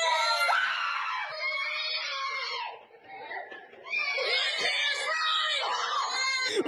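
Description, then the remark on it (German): Several small children scream in panic as adults wearing horror masks get very near their faces and shout at them: loud, high-pitched and overlapping, with a brief dip in the middle before the frantic shrieking surges back and continues to the end. “Du hörst wirklich diese Panik in den Stimmen der Kinder.”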